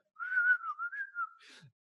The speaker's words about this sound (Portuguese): Consigo assobiar normalmente, não é?